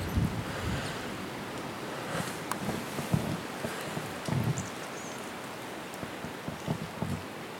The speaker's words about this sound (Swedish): Ni hör nästan hur, hur asparnas grenverk slår emot varandra i vinden